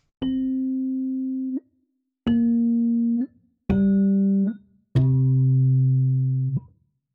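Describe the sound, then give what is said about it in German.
Four loud electric piano notes, each struck and held for about a second before a small clicky key-release sample sounds as it stops, stepping lower in pitch, with the release samples turned up as loud as possible and no talking. “Und bei Release, da hören wir jetzt noch wirklich echte Release-Samples. Damit du die genauer hörst, mache ich die mal so laut, wie es geht.”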